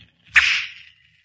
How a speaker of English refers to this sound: Keen eyes fixed on a flying target. A gleaming arrow set against a rawhide string. A strong bow bent almost to the breaking point. And then...